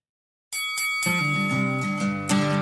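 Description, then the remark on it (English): A bright metal bell rings out sharply, struck several times in quick succession, its loud, shimmering tone lingering and building between strikes, with no voices; rung in a room full of spectators at a fight. “All of you hear ringing in your ears as you recognize the tension that is in this room, and moments later, you hear ringing for another reason.”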